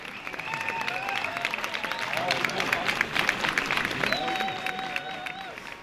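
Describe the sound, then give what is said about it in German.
A crowd bursts into sustained applause and cheering as the name Frederik Mayet appears in white on green on the board, dense clapping throughout with shrill whistles and excited shouts rising above it, loud for several seconds. “Als schließlich der komplette Name weiß auf grün an der Tafel steht, Frederik Mayet brandet Jubel auf.”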